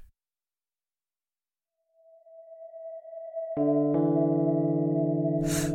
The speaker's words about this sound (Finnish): Ikkunasta yläviistoon näkee muutaman sekunnin välein ohipyörivän valon paljastavan kirkkaasti ulkopuolella vellovan tihkusateen. Tässä hiljaisuudessa majakan valolaitteen pyörivän koneiston myös kuulee.